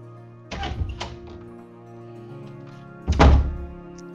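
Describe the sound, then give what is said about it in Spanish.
A door opens with a couple of solid knocks and thuds as a visitor enters, followed a few seconds later by a heavier, louder thunk. No one speaks. “Se abre la puerta y entra Rosa”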